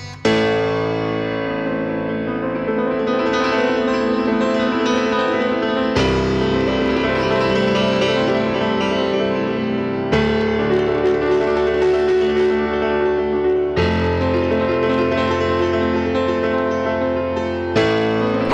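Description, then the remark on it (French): A solo piano cover of a song: sustained, ringing chords that change every few seconds, played steadily and fairly loud, with no voices. “Ce qu'il aime bien en particulier, Amine, c'est les reprises au piano seul.”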